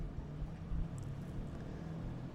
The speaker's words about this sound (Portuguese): Olha a moto, olha a moto. Mas essa não é a moto do fim do mundo, não, que nem foi de ontem foi a moto do fim do mundo.